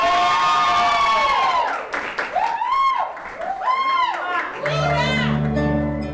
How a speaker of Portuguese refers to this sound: Agora sim, salva de palmas no nosso palco Ciano, pode aplaudir!